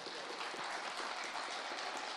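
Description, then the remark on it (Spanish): Audience applause for the son jarocho group Los Vega in the Sala Julián Carrillo, broadcast on Radio UNAM 96.1: a steady wash of many hands clapping at once, dense and even from start to finish with no voices over it. “Para los Vega, son jarocho, aplausos.”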